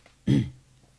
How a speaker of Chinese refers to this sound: 杨伟抿了口水，清清嗓子，继续开始了。